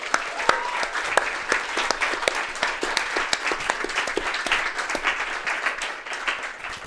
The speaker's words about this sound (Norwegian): Gi en applaus til dem.